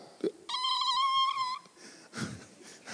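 A small child in a church lets out one high, drawn-out wail lasting about a second, loud, after a brief sharp sound; muffled voices follow as the crying stops.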